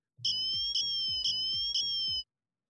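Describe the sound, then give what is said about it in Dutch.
An Apple Watch siren alarm: a shrill, high-pitched electronic tone that wavers steadily, pulsing four times in a quick regular rhythm over about two seconds, loud and alone with no voices. “Want dan hoorden we dus het alarm van de Apple Watch.”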